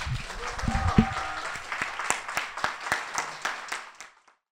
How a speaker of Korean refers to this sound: 자, 그러면 어, 저도 박수로 여러분들도 박수로 마치겠습니다. 감사합니다.